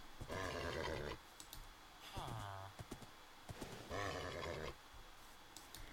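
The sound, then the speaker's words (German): A horse neighs loudly several times, with harmonic whinnies rising and falling, while sharp hoof clip-clops tap irregularly in between, clear. “Was will das Pferd von mir, WTF?”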